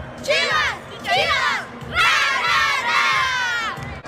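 A group of voices shouts a rhythmic team cheer (a porra) for the Chivas in unison, counting one, two, three, several loud chanted bursts in quick succession, energetic like a crowd rallying together.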